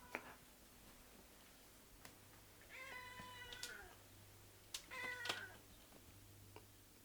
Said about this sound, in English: They both heard a cat in the forest the fairy queen pointed to the cat that led out the forest, and the man and the boy followed.